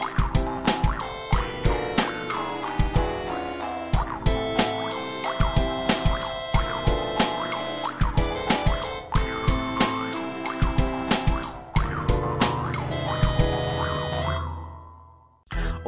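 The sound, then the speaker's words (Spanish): An upbeat electronic opening theme plays alone, with a steady punchy beat and bright synth tones that swoop up and down; a heavier bass line joins near the end before it quickly fades out. “Dentro cabecera.”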